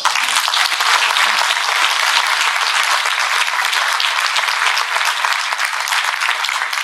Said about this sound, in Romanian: Vă rog să-L aplaudați.